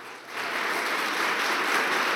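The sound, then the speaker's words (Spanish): A church audience breaks into applause to the Lord for first-time visitors, a dense, steady wash of many hands clapping that swells in after a brief moment and holds strong throughout, with no voices heard over it. “Vamos a dar un aplauso al Señor por ellos.”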